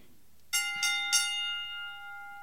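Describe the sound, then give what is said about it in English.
A bright bell rings three times in quick succession, like a tram bell, each strike clear, with the metallic tone lingering and slowly fading after the last hit. “which sounds like it's either a tremendous battle or their trams just arrived, and I can't decide which one it is.”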